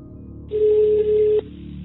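A phone call to a prison connecting: one steady ringback tone over a thin, telephone-filtered line, lasting just under a second before cutting off sharply. No one speaks.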